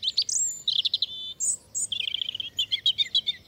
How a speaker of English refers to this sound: The roots of its common name lie in Europe, though, and a distant relative, a bird not much bigger than a chickadee, the European robin.